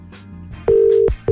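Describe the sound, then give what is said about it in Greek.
A phone line's ringback tone from an outgoing call placed to wake a woman up: a loud, steady mid-pitched beep holds for about half a second, breaks off, then starts again, over a faint low background hum. “Μα έχει βάλει να την πάρουμε τηλέφωνο να την καλέσουμε για να δούμε και τη αφιερώνει καλά ένα τραγούδι πάρα πολύ καψούρα, να ξέρει.”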